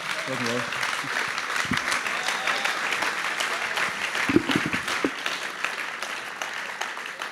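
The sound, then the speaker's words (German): An audience applauds steadily, a dense wash of many hands clapping that holds at an even level throughout, with a few faint voices mixed in near the start. “Einen Abend zum Applaus.”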